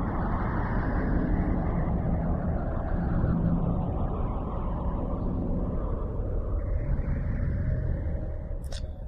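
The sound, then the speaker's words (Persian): A continuous dark, droning rumble of eerie space-like sound, dense low tones with a hollow wash above, steady and loud throughout with no voices, ending in a brief faint click. It is music made from the waves of a galaxy. “شاید کسی با این موسیقی این کهکشان را آفریده باشه و صدای ساز خودش رو در این کهکشان ضبط کرده شاید اون همون اندازه تاریک و دهشتبار بوده که این موسیقی هست”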